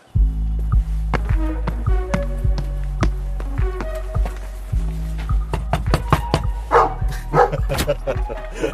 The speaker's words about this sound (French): On est accueilli par le chien. Bonjour. Il est beau, hein, ce chien. Magnifique chien. Une grosse peluche.